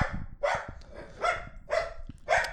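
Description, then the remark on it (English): A dog barks repeatedly at a balloon, four or five sharp, fairly loud barks spaced about half a second apart, with a low background rumble and no talking. “That's my dog barking at the balloon.”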